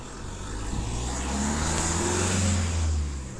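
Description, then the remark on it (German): A loud engine drones steadily, its low rumble and humming tones holding at a constant level for several seconds with no talking over it. “Jetzt kann man nicht den Motor ein bisschen leiser drehen?”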